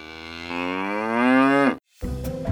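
cow mooing

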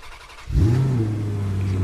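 car engine revving

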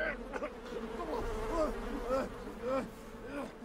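bees buzzing

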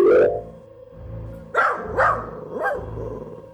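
dog barking

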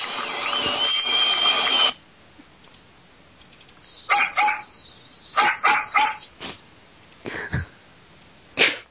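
dog barking

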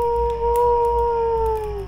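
coyotes howling

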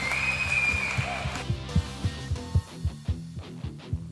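hand clapping

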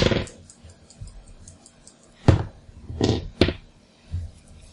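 dice being rolled

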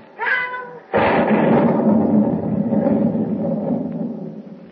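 thunderstorm at sea

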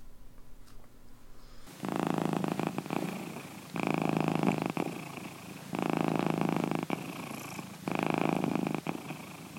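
cat purring

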